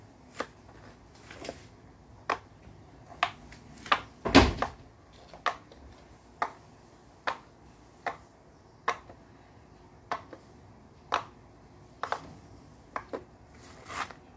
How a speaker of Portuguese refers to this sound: Não sei se vocês ouviram, mas esse poppet é um poppet de picolé mordido. Não sei como é que se fala mas tem uma mordidinha assim.